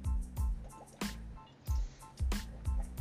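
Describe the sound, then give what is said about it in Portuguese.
Someone takes sips of water to refresh themselves, with a series of wet gulps and swallows at an uneven rhythm, each one a soft, damp thump with brief pauses between. “Tomando uma água aqui pra dar uma refrescada,”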